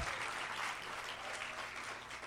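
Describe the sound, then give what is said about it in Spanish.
A crowd claps steadily in a round of applause for Jesus, a dense, continuous wash of applause that stays fairly even in loudness for a couple of seconds with no voices standing out. “Dan, dan un aplauso a Jesús.”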